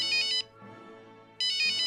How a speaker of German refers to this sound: Da klingelte das Handy.